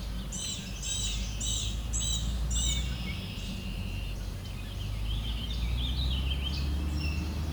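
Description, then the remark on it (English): A warbling vireo sings rambling, warbling phrases that rise and fall, mixed with repeated chirps from another bird, over a steady low rumble of background noise, recorded on a phone running a bird-identification app. “There we go, just caught warbling vireo.”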